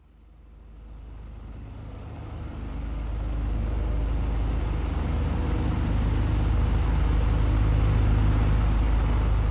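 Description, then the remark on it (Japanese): A low, steady diesel engine rumble from several boats passing in the early morning on a river near the sea builds over the first few seconds, then holds as a deep, continuous drone. No voices. “引っ越してから気がついたんだけど朝早い時間に船がいくつも通る。ディーゼルエンジンの低い音がまだ眠りの淵でもたついている街を這うようにやってくるこれが苦手だった”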